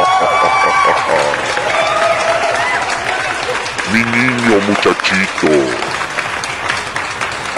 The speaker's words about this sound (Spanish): Aplausos para el señor Leijas.